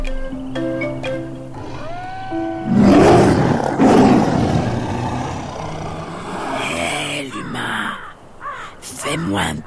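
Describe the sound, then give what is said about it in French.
A sabre-toothed tiger, a feline up to 2 metres long and weighing over 280 kilos, lets out a loud, deep roar in two heavy rumbling surges, then trails off into quieter growling and scattered sounds. “Le tigre à dents de sabre est le plus gros félin que la Terre ait connu.”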